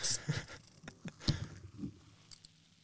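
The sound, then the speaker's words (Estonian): A brief sharp hiss as a ginger and turmeric kombucha bottle is opened with a bottle opener, followed by soft, scattered crackles and little clicks of fizzing liquid, quiet with no voices. “teeme selle ilusti lahti kohe, lasen siia heli ka.”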